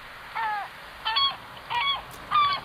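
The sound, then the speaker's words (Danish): Four gull calls at a steady, unhurried pace, each a short, harsh, slightly descending cry. They are clear, with no voices and only faint background hiss. “Jeg elsker, elsker lyden af måger.”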